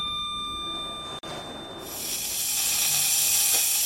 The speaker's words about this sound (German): Hurra, eine Kaffeemaschine.